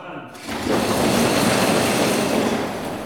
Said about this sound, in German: Immer wenn der Name Haman fällt, wird möglichst viel Lärm gemacht.